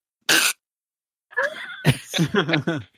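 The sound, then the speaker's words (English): A voice imitates a glued and repaired chair cracking apart under a man sitting in it in a living room, with one short, sharp, noisy crack, fairly loud. After a pause come breathy, pulsing vocal sounds like laughter. “And all you hear is the, the chair go,”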